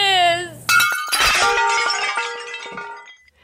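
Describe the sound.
A short voiced sound gives way to a loud, close crash of ceramic jars smashing, followed by a few seconds of ringing, clattering shards settling and fading out.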